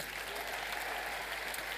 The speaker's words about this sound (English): And then I'm going to launch a second TV show. Yeah, you should clap on that one too.